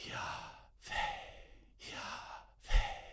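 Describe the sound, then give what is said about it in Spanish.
A person deliberately demonstrates breathing in and out: four airy, breathy strokes alternating inhale and exhale, each about half a second, separated by brief pauses, with no words spoken. “es el sonido de respirar, dándonos a entender que Dios está tan cerca como el aliento mismo.”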